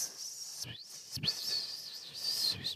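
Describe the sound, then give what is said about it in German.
A voice imitates a high, steady whirring hum, like one that runs along in a sound's reverb from effects processing, held continuously with two brief breaks, fairly quiet, with no other talk. “Äh, weiterläuft im Hall oder im, in, ja, durch die Effektierung und dann, und dann läuft da so ein Surren mit,”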